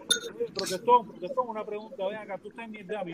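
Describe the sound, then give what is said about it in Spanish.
A spoon clinks lightly against a small glass a couple of times near the start as someone eats, bright brief taps partly buried under steady conversation. “el que está comiendo ahí con el, vasito y la cucharita, que se ponga en silencio. Que nada más está sonando la cuchara.”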